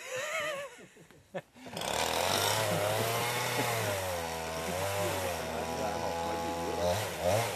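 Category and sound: tool, chainsaw felling trees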